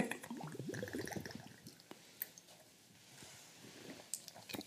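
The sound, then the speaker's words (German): Quiet liquid sounds as a shot of liquor is drunk from a glass in the early morning: a sip and swallow with small wet clicks and gulps, followed by a few sharp lip smacks and a soft exhale, no talking. “Wir trinken jetzt noch einen ein Stäbchen am frühen Morgen.”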